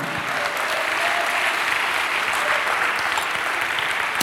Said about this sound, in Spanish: Dale un aplauso a Cristo, amado hermano.